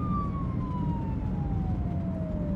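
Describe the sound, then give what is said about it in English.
A single siren tone glides slowly downward over a steady rumble of street traffic, sounding continuous as an emergency vehicle passes by. “Are there always this many sirens?”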